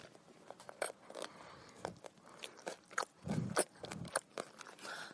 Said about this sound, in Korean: 오, 네. 밥과 반찬 두 개가 입속에서 만났습니다. 꼭꼭꼭꼭꼭꼭꼭 씹고 있습니다. 네, 선수의 밥 먹는 소리를 들어보겠습니다.